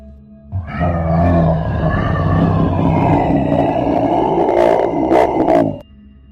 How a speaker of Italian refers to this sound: Poteva trattarsi di un leone o di qualche animale.